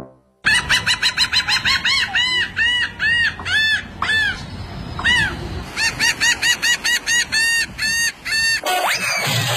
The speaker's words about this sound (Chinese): 你能听出这是鸟叫声吗？这是笑鸥的叫声。